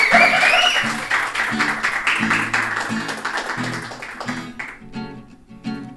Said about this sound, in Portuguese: É isso aí, pessoal. As palmas aí só pra ajudar. Vai.